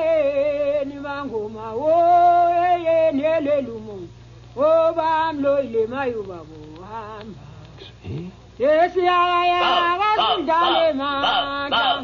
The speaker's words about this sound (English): And so this is the sound of a lady witch doctor, and it may help you. Turn it up. It may make you feel better. Exorcising the evil spirits.